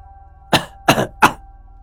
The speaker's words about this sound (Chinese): 船舱门口。传来一阵咳嗽声